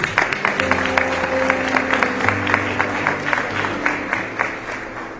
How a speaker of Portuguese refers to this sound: Então dá um aplauso ao Senhor por isso.